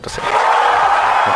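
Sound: applause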